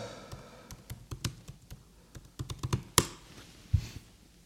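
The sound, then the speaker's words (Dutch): Crisp laptop keyboard typing in irregular bursts of clicks, with a few louder key presses standing out near the end; no one speaks. “Nou, Dat typ ik.”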